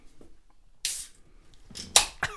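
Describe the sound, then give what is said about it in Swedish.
A tall can of home-brewed lager being cracked open: sharp bursts of fizzing hiss, one short release followed a moment later by a louder pop and rush of escaping gas, with no talking. “Jag tycker det är lite kaxigt med burk så här, hembryggare med en burk.”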